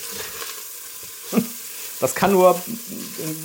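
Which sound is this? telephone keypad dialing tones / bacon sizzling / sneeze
bacon sizzling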